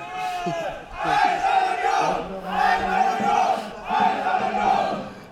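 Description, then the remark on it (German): A large crowd of Union football fans, just arrived, chants loudly in unison, their voices rising in three repeated surges with brief dips between, sounding full. “So, und hier, hören wir sie, gerade angekommen, aber dann, ey.”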